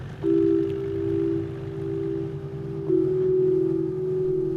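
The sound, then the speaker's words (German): A speedboat, a rib boat, races over smooth, clear water out onto an open fjord in western Norway; its engine drones steadily with a strong low hum and a sustained tonal whine that shifts slightly in pitch partway through, holding loud and even throughout with no voices. “Und dann geht er los, der wilde Ritt im Ripboat, einem Speedboat über glattes, klares Wasser raus auf den ersten, noch offenen Fjord.”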